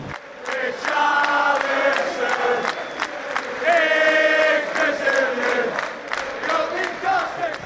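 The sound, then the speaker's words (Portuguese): A large stadium crowd of Everton football supporters in England chants in unison, loud and continuous, with many voices swelling together over steady rhythmic claps or beats. “aí a torcida do Everton cantando, né?”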